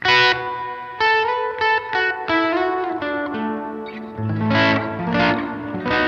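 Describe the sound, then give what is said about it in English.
A guitar played through a reverb pedal plays a slow phrase of plucked notes and chords drenched in lush, spacious plate reverb, each note blooming and trailing off into a shimmering wash. No one speaks. “And it kind of has your ambient like plate reverb right. thing going on.”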